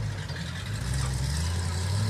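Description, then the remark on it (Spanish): A car engine idles with a steady low rumble and constant hum, running continuously without revving for the whole short stretch. “Ahí está mi carro. Pasen, por favor.”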